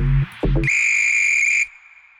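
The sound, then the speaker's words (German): A sharp referee-style whistle blast rings out loud and close for about a second, preceded by two short low thumps, then fades quickly into quiet. “pfeif den Podcast an zu einer neuen Folge Kick and Quatsch, der Fußballtalk aus Oberhausen”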